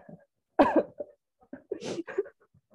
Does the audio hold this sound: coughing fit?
yes